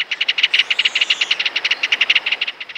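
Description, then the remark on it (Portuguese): A kingfisher gives a loud, rapid rattling call at dawn as it arrives and lands at its fishing spot, a steady train of sharp, dry clicks that runs for almost three seconds, alone with no voices. “Parece o som de uma matraca. E até por isso mesmo, no Rio Grande do Sul, o Martim Pescador é chamado de matraca.”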